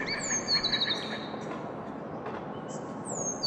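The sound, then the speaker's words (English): Recorded songs of bird species once native to the area, forced out by development, play through speakers among over 100 bird cages suspended in an alley: a run of quick high chirps early on and thin whistled notes returning near the end, moderately loud, over a steady low rumble. “Then he added speakers, playing bird songs from the list of species Dr. Major curated that were once native to the area but which had been forced out by development.”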